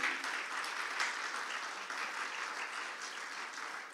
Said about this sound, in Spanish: Y yo los felicito a ustedes, hermanos. Vamos a darle un aplauso al Señor, amén. Aleluya.